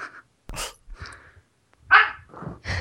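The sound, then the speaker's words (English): Cats fighting, with several short, harsh bark-like yowls and huffs in quick irregular bursts. The sounds are fairly loud, with no talking. “The cats were fighting.”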